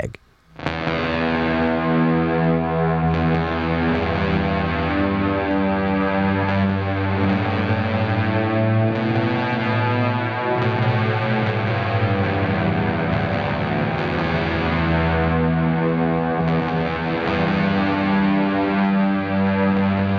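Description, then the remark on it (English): A fuzzed-out P bass played through a pep box fuzz pedal into an amp plays alone, thick and loud, with sustained, overlapping notes that bleed into one another under a washy reverb tail, the grit holding steady for the whole passage. “Let's listen to that example with the reverb only, and then I'm going to play the example with just the dry signal only so you can hear what it sounds like with the P bass into the pep box, into the amp”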